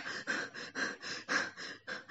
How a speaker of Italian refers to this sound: Aiuto, non respiro, sto male, non entra, non entra l'aria, manca